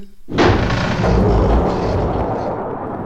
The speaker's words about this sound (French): Tiens, on dirait un métro.